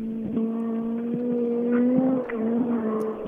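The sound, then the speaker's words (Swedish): A racing car engine drones steadily at a fairly constant pitch, rising slightly in loudness toward the middle before easing off briefly and continuing, with no voices present. “Ganska snart kommer jag att se bilen som kommer ner.”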